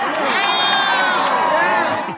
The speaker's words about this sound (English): Canadian rapper was booed off stage by fans who had apparently been expecting …